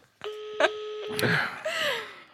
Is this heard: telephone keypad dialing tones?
yes